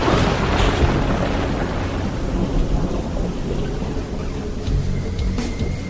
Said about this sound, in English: The ground is, is shaking now. It's an earthquake. Ah, the atmospheric pressure is intense. People are scattering and things are falling all over. I can see into the city and the buildings are toppling.